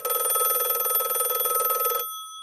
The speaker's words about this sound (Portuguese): O telefone da casa da Brenda tocou e lá estava o jornalista, surpreso por ter conseguido estabelecer contato com ela no meio de um atentado.